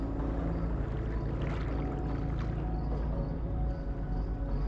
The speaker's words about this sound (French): la fenêtre et sous les étoiles, vous longez lentement un grand fleuve dont vous entendez glisser les eaux.